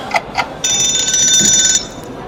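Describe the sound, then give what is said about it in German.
Two quick ticks, then a loud, shrill electronic timer alarm of a sound-guessing quiz game played on a Google voice assistant rings steadily for about a second before cutting off abruptly. No voices are heard. “Das ist natürlich nur noch der Timer.”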